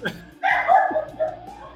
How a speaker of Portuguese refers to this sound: Minha cachorra tá latindo loucamente aqui.